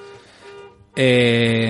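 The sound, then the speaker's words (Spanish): The alarm of a car outside suddenly blares about halfway through, a loud, steady, buzzing electronic tone that holds without a break, following a brief stretch of quiet voice. “Ah, eso es la alarma, del, coche de ahí fuera.”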